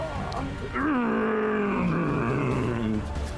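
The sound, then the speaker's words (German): A loud voice imitates a mouthless creature screaming, the skin folds on its face flapping: one drawn-out, growling howl that rises, then slowly sinks and wavers for about three seconds, with a rough, fluttering edge. “Und, äh, und, ihr hört halt, auch wenn er keinen Mund hat, um dieses Geräusch zu erzeugen, aber als er schreit, flattern diese Hautfalten wieder in seinem Gesicht.”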